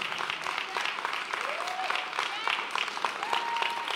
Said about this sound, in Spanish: Dele fuerte el aplauso al Espíritu Santo.